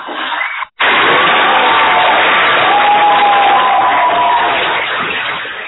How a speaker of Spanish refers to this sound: Vamos a recibir con un fuerte aplauso desde allá, de Miramar, al lado de del arrecife cerca del Mar Caribe, recibiendo la brisa y los mosquitos diarios y cotidianamente